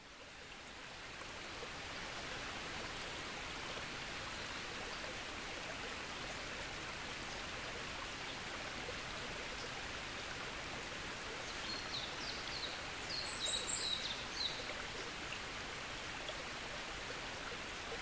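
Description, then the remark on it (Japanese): A small mountain stream deep in the forest on Yakushima island, Japan, recorded early in the morning around sunrise, babbles and gurgles steadily, a continuous bright wash of flowing water with no talking. Faint high chirps, likely a bird, appear briefly near the end. “小さな水の流れから生まれるせせらぎの音っていろんなたくさんある自然の音の中でも結構定番で音が連続的に流れてくる”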